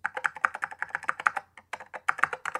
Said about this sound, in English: All right. Well, let me let me type in uh, frogs for sale.